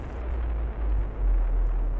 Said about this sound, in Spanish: Así permaneció por largos minutos hasta que al final fue sacudido por una explosión de mayor intensidad y terminó por hundirse.